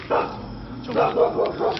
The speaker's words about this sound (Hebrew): אחי, אחי, זה כלב.